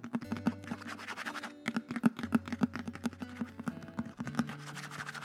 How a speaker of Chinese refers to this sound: 终于要开箱了，好紧张，好紧张！让我们来听听看它的外壳会发出什么样的声音。